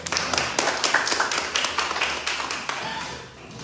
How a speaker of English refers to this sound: He does want to do that part, so come on, clap your hands as he come back.